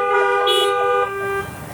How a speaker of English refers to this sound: Also, to those who are in their cars, I guess this will be the end of the drive in. Um, honk your horns one last time to say amen.